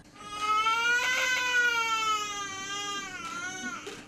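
A newborn baby, the first born in 2024 at Defne Hospital in Hatay, wails in one long, sustained, loud cry, its pitch wavering before a shorter breathy sob near the end. No one speaks.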